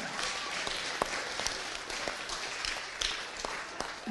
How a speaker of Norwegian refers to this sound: Kjempe, kjempebra applaus til Jesus. Ja.